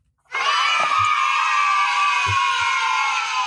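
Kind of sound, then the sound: crowd, crowd cheering sound effect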